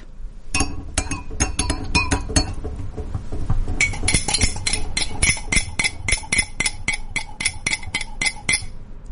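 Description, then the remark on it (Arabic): A metal spoon stirs a drink in a glass cup, producing a fast, steady run of bright clinks and taps against the sides, fairly loud, with no voices. “ده كان صوت تقليب مشروب سواء كان حار بارد أي شيء قلت لي إياه يعتبر صوت تقليب مشروب فعلا عندي الكاسة أو الكوباية تكون قزاز والملعقة الحديد فهذا صوت تقليب المشروب”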